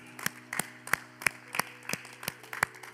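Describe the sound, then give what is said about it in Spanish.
Steady, rhythmic hand clapping by a preacher during a church sermon, about nine sharp claps in three seconds, likely one person, moderately loud, over a faint low hum with no talking. “Déjenme aplaudir, señores.”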